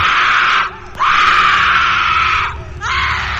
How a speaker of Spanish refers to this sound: Entonces, una mano surgió debajo de la cama, la agarró por el pie y tiró arrastrándola hacia el suelo mientras ella gritaba desesperada.